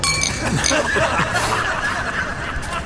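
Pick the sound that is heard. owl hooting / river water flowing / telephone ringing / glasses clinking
glasses clinking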